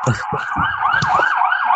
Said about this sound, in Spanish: Ay, sí, espera pues, que ¿qué en la ambulancia? Pasó la ambulancia.